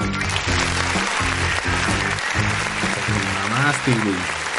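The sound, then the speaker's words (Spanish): Steady applause runs through the whole clip, a dense wash of clapping with no breaks, while a man talks loudly over it. “Tú sí te llevas un aplauso, cabrón.”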